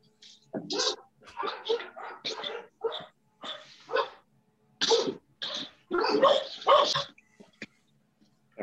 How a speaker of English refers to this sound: Oh, hey, hang on a minute. Let me go lock the dogs out of the living room.